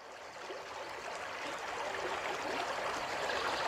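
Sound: flowing river stream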